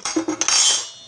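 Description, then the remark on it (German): Several quick clinks of dishes and cutlery in a burst as someone tidies and cleans up in a kitchen, with a ringing metallic clatter that trails off into a faint hiss; no one speaks. “Ähm, ich räume hier, also ich putze hier gerade.”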